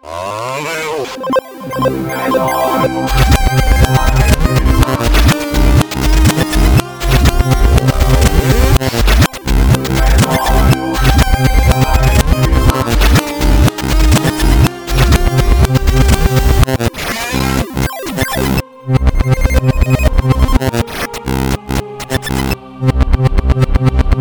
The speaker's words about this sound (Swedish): Ja, och som, som eh, en liten hyllning kommer vi också att spela Sjuka Journalen gingen baklänges här. ja, med lite reverb och lite Ja. eh, så här distorted så att den låter riktigt sliten. Kommer låta helt sjukt.